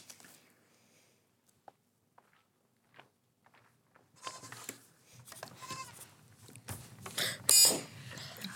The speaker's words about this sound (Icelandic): Þetta er, þetta eru, ja, já, þetta eru geitur. Þetta eru geitur